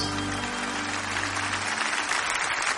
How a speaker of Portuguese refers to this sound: Uma salva de palmas.